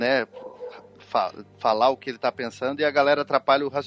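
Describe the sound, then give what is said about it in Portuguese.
A dog barks intermittently in the background, short, fairly faint yelps partly masked by a man talking steadily over them. “Não, eu só reparei que tem um cachorro latindo no fundo dele, mas.”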